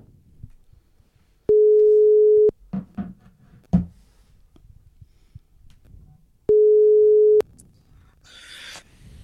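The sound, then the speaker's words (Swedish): A phone ringback tone while a call is being placed as a repeat attempt: two loud, steady one-second tones about five seconds apart, with faint clicks and quiet background noise between them. “Det, får göra ett försök på Öhman här snart igen.”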